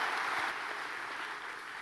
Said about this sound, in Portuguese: Pode aplaudir porque é verdade.